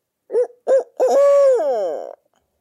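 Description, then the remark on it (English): A loud owl hoot used as a turkey locator call: three short rhythmic hoots followed by a long drawn-out hoot that slides downward and trails off, with no talking. “A lot of times you only get one gobble out of an owl hoot or something other.”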